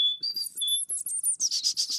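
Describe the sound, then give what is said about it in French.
A person mimics a great tit's alarm call: shrill, piercing whistled notes squeezed through the teeth, then a quick series of harsh, chattering bursts, fairly loud with no talking. “C'est un son entre les dents pour moi, strident”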